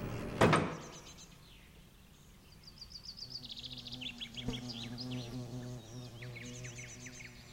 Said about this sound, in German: Für einen kurzen Moment hat der Wind genug Kraft entwickelt, um die schweren Feigenblätter zu lüften und den Blick auf das Wespennest freizugeben.